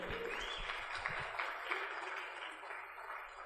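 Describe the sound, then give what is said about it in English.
Audience applause for a school soccer team that won state: a steady, dense wash of many hands clapping at once, fairly soft, with a low murmur of voices underneath at the start that fades while the clapping continues. “One thing that's really exciting about this team, yes, clap for them.”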